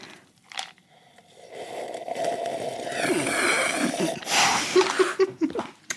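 Drinking sounds of cola from a bottle and of coffee: wet sips, slurps and gulps with breathy exhales, fairly loud, lasting several seconds with no talking.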